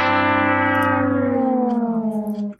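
A game show losing horn sound effect, the Price is Right horns: a loud, brassy tone that slides steadily downward in pitch over a couple of seconds, wobbling slightly near the end before cutting off, with no talking.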